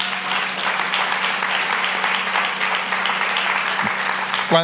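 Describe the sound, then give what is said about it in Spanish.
An audience applauds for the Lord during a church service, a dense wash of many hands clapping steadily for several seconds, with a faint low hum beneath and a brief voice near the end. “Gloria a Dios por ese aplauso. Porque ese aplauso fue para el Señor.”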